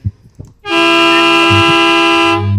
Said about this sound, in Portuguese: Adoro essa buzina